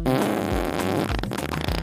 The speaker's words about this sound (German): Beim nächsten Mal geht es bei uns um die Frage, warum wir pupsen.